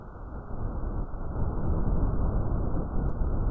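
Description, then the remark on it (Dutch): A steady, dense rush of noise, like wind or static, fills the whole stretch at a fairly loud, even level; it sounds muffled and low-heavy, with no voices. It is made by bacteria waving their whip-like flagella so that they strike a graphene sheet. “Telkens dat dit op de grafeenvel komt, geeft dat geluid.”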